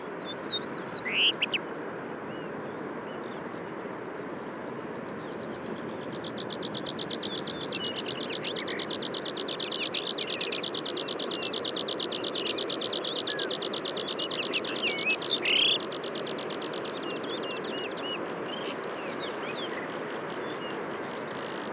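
Short phrases of high, thin bird song and chirps at a mountain pass rise over a steady rushing background, with a denser stretch of rapid high calls through the middle before easing off.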